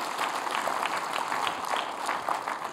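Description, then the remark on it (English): An audience applauds Jesus, a dense wash of many hands clapping at once, sustained at an even level throughout with no speech over it. “If you're thankful for the freedom that's found in Jesus, give him a big round of applause this morning.”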